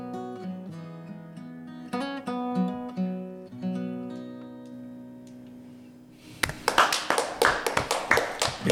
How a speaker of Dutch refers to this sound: zou eigenlijk een heel groot applaus willen hebben. Ja, maar we eh, zitten hier maar met z'n drietjes. Studio eh. gaat uit zijn dak.